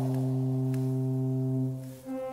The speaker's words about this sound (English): So I'm going to play this note. That's a pipe four feet tall.